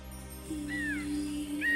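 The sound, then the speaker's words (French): A drawn-out, slowed bird cry with a low sustained tone and rising, sweeping whistles above it, followed by a second call near the end, moderately loud, with no one speaking. “Elle entendit chaque cri d'oiseau, chaque clapotis de pluie.”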